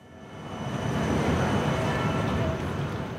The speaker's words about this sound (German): Es ist Vormittagszeit beim Berner Bahnhof.